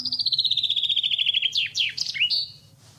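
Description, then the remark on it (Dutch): A chaffinch sings one clear song: a rapid, bright trill that starts high and slides steadily lower, then breaks into a quick descending flourish of swooping notes, the ending known as the 'vinkenslag', before stopping. “Dat is wat ze die vinkerslag noemen.”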